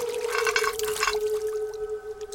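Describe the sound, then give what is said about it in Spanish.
Holy water poured into a woman's mouth during an exorcism, a splashing gush for about a second that thins to a faint trickle, over a steady background hum. “Abran su boca. Et que agua bendicta.”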